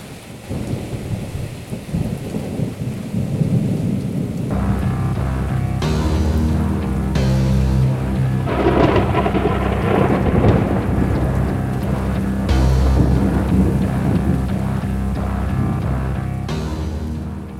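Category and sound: nature, heavy rain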